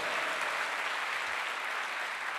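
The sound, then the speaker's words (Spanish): A crowd claps steadily in applause to the Lord, a dense, continuous wash of many hands applauding together at a fairly loud level, with no voices standing out. “Dele fuerte ese aplauso al Señor.”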